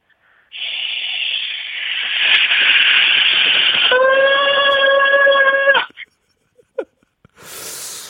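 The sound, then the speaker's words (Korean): A steady roar of a four-engine Airbus A380 jet airliner flying, building into a layered high-pitched engine whine before cutting off abruptly, followed by a few brief faint sounds and a burst of noise. “그 에어버스사의 380 모델 이거는 좀 큰 거죠.”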